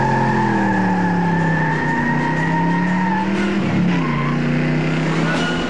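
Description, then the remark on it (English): A car engine roars loudly while tires squeal in long, wavering tones for several seconds, the pitch dipping and rising as a young man's car fishtails and accelerates away across from a lawn. “Next thing you know, the young boy is running across the lawn, jumping into his car, and fishtailing out of there.”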